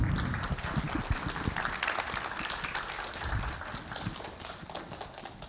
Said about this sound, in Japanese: 皆さんどうぞ大きな拍手でお迎えください。